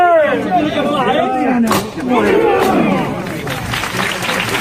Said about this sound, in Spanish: Momento más que emocionante, la levantada que hemos podido escuchar y vivir en este directo, que no es directo, claro.